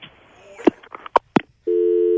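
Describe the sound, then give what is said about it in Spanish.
A few sharp clicks and clunks of a phone handset, then a steady, loud tone with an evenly spaced harmonic stack kicks in and holds: the line going dead after the other end hangs up. “Ah, ya colgó él. él nos colgó.”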